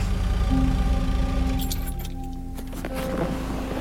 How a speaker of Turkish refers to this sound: Sessizce iniyoruz arabadan.